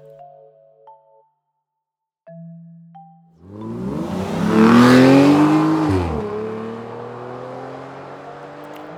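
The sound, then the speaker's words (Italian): A few short electronic beeps, then a convertible sports car engine roars to life, revving up loudly to a peak before settling into a sustained, throaty drone. “auto sportiva a cabriolet”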